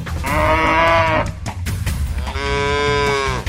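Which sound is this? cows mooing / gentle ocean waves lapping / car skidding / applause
cows mooing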